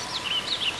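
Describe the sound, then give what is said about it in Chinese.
Birdsong: a few high, warbling chirps sweep up and down in quick succession, soft and continuous over a faint background hiss, with no voices. “他听见各种各样的鸟儿在唱歌，心情别提多欢畅。”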